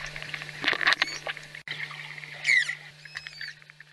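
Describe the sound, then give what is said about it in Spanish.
Manatee calls made to communicate: a scattered series of short, high, squeaky chirps and brief whistles, some rising or falling in pitch, over a steady low hum and faint watery crackle. No one speaks. “Los manatís emiten sonidos cuando intentan comunicarse. Sus sonidos son como chirridos o silbatos cortos.”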